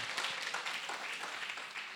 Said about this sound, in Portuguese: Dá uma, uma salva de palmas ao nosso Deus aí.